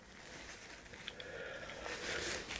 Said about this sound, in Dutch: Je, je, gaat wat geritsel van een papiertje horen, want mijn neus is eh, vervelend aan het doen. Sorry daarvoor.